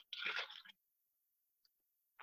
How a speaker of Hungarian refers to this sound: Bocsánat, csak itt egy korty jégert, hogy a hangom egy kicsit jobb legyen